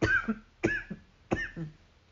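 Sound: coughing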